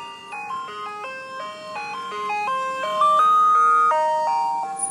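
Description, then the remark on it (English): An ice cream truck's tinkling electronic jingle plays a steady stepwise melody, growing slightly louder as the truck crawls closer at about half a mile per hour. No voices are heard. “Hold on, there is of course an ice cream truck.”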